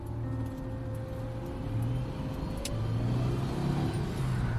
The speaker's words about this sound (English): It sounds like you're driving. Uh, no, I have the car on. Get the AC going.